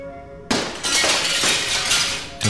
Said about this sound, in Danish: To maskerede mænd smadrer et vindue og kravler ind på postkontoret og gemmer sig.